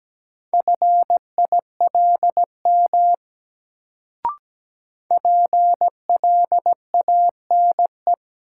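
Morse code sent at 17 words per minute: a single steady mid-pitched beep keyed into short and long pulses, two bursts of characters split by a pause with a faint click.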